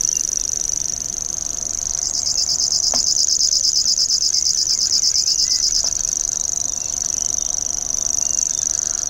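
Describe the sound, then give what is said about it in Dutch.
A grasshopper warbler's reeling song: a high, dry, insect-like trill that runs unbroken for the whole stretch. It is steady, with two faint clicks partway through and no voices. “Dit is de springkaanzanger.”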